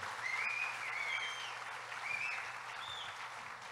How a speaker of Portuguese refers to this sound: Vamos dar uma salva de palmas a Jesus pela vida do